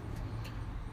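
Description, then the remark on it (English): Steady road traffic noise outside a post office, a continuous low rumble of passing cars with a couple of brief hissy swells, constant throughout. “I'm here at the post office. Sorry about the road noise”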